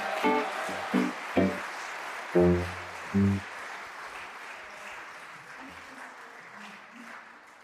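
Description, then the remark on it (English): An audience claps steadily for several seconds at a talk show as a guest is introduced, with a few short whoops and shouts rising over the applause early on before it settles into an even patter. “All right, give it up for”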